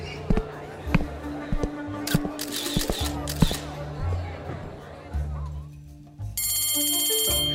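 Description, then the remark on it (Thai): A school bell rings out loudly near the end, signalling that it is time for class: a continuous rapid metallic ringing that follows a stretch of people talking amid knocks and shuffling bustle. “ได้เวลาเรียนแล้ว พวกเข้าห้องหลังกลิ่ง คือพวกเข้าสาย”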